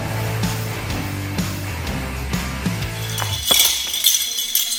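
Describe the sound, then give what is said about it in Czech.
Metal medals, won this season at various competitions by a majorette team from Borek near České Budějovice, clink and jingle against each other in a steady run of bright, chiming taps, growing into a busier, louder jangle toward the end, with no speech. “Krásně cinkají medaile, které mažoretky z Borku u Českých Budějovic přivezly v této sezóně z nejrůznějších závodů.”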